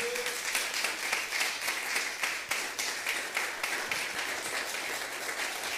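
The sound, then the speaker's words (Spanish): An audience claps for the Lord together in a steady, dense burst of applause that holds for several seconds, many hands overlapping into a continuous crackling wash with no voices standing out. “Dele palmas al Señor si está entendiendo.”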